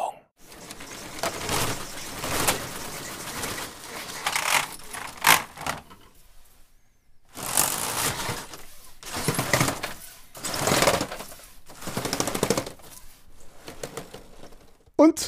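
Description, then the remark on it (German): A roller shutter rattles down and then back up, a dense clattering of slats in two long runs separated by a brief pause, with uneven rhythmic ticking throughout. “Ein Rollladen, einmal runter, ja. einmal hoch. So hört sich das an.”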